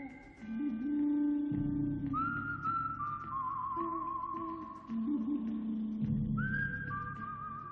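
A clear, high whistled melody of long held notes with slight vibrato, in the style of a western film theme, carried over a full, low orchestral backing that swells throughout.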